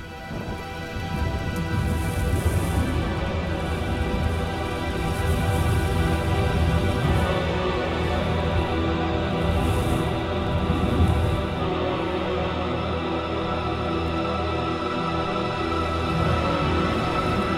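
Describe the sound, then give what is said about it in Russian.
Steady, dense rainfall hisses throughout, with deep rolling rumbles of thunder swelling in the low end. No voices, just a continuous, fairly loud storm. “мы слышим звуки дождя и грозы, а из нарастающего эмбиента в духе … доносятся шумы автокатастрофы и угасающего пульса.”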